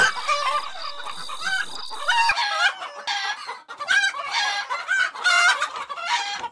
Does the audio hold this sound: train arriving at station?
no